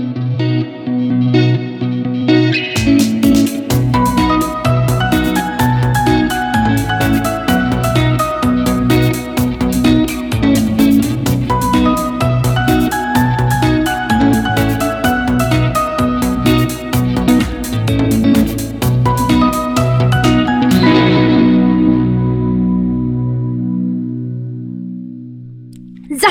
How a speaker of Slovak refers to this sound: Takže počujeme sa po zvučke.